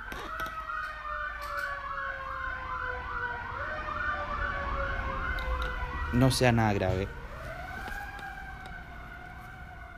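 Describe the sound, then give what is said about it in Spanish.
A fire engine siren wails in steady rising and falling sweeps as it passes by again, swelling loudest midway with a brief blare, then continuing more faintly; a person speaks briefly over it. “Están pasando los bomberos de nuevo.”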